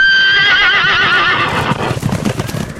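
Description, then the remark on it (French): A mare lets out a loud, quavering neigh that trails off, followed by a rapid, uneven clatter of galloping hooves as it rushes in all directions and rears; no one speaks. “La jument est alors partie au galop, se ruant dans tous les sens, se dressant vers l'arrière et se précipitant dans les flots depuis les falaises.”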